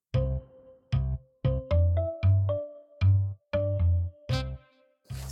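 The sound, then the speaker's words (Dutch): An alarm clock rings in a steady run of about ten short, bright tonal beeps with brief gaps between them, loud, with no voices. “De wekker gaat opnieuw.”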